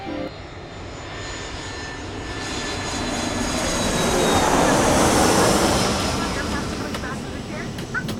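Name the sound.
airplane engine sound effect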